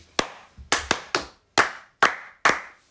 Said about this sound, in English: I'm sure the mic can hear me anyway. Sorry. Who's gonna hear me clapping again.